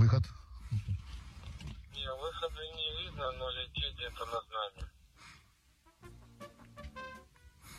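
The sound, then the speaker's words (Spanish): A deep, rumbling blast of a Russian missile striking very close to a soldier sheltering in a trench hits right at the start and fades, followed by distorted shouting voices, then a faint scattered patter of dirt and debris falling nearby, leaving the soldier covered in earth. “Al momento del caer al misil solo se escucha la explosión, dejando al soldado cubierto de tierra.”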